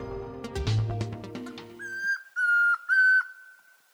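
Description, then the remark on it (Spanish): A man whistles an imitation of the call of the Tororoy Comprapan, a tororoi bird, in Javeriana Stereo's 'el trino del día' segment: three sustained, steady, high notes with slight downward slides at their ends, following a short burst of music. “Este es el trino del Tororoy Comprapan, un hombre que imita su canto, es un pájaro tímido, principalmente terrestre, de unos 18 centímetros de alto, que tiene la cabeza y la nuca de color naranja rojizo con el vientre blanco”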